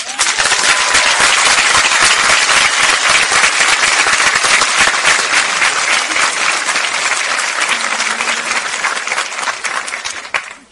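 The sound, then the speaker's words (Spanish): Loud, sustained applause from a large audience welcoming a speaker, dense clapping for about ten seconds, then tapering off at the end. “Ayúdenme a recibir con el mejor de los aplausos, no cualquier aplauso.”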